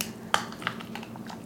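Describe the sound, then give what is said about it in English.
A chicken keel bone, which joins the two breasts, cracks as a palm is pressed flat on the chicken breast to flatten it: two sharp, brittle snaps about a third of a second apart, followed by a few faint crackles over a low steady hum, with no talking. “I'm laying it flat on the chicken breast, and I'm going to break the um, the keel bone, which is the bone that connects the chicken breasts together.”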